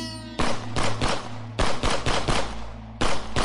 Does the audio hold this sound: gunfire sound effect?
yes